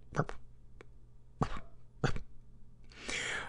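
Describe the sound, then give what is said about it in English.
A person mimics a small dog's last little, get-the-last-word-in bark with a few short, clipped, breathy woofs, fairly soft, ending in a brief rush of breathy noise. “I love the little, gotta get the last word in bark.”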